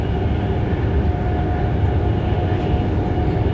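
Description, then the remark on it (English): Steady, loud rumble from inside a moving train passing a murmuration of starlings, a forest and a farm; a dense low roar with faint rattling that holds constant throughout, with no voices. “When you're on a train, you can find yourself uh, passing huge murmurations of starlings.”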